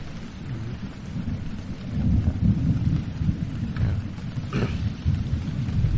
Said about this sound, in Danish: vide, hvor lang tid den storm kommer til at være der, var Emil? Det ser slemt ud, synes du ikke?